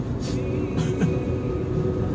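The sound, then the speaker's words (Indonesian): Steady low rumble of a car driving home along a road at about half past seven in the evening, heard from inside the cabin, with a continuous engine and tire drone and a few faint higher noises drifting through. “seperti biasa ini sekarang lagi di jalan pulang ini kebetulan sudah jam ya hampir jam setengah 8 malam ya”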